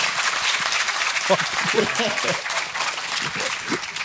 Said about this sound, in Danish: Prøv at klappe, hvis I kender podcasten så. Okay. Ja, tak.